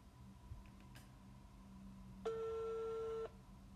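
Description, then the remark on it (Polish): A few faint clicks over a low hum as a phone number is dialed, then a single steady electronic telephone tone sounds for about a second, like a ringback tone on a call being placed. No one speaks. “co za chwilę będzie możliwe do stwierdzenia, ponieważ mam nadzieję będzie słychać dźwięk wybieranego numeru.”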